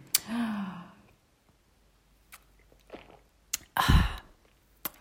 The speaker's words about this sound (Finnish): Minäpä hörppään tästä kahvikupista. Mulla on niin hyvää kahvia muuten.